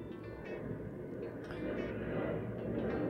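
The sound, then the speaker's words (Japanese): A steady, deep roar of an airplane passing overhead, heard through open windows on a hot summer day, its low rumble swelling slightly louder toward the end, with no one talking. “聞こえますか飛行機の音。”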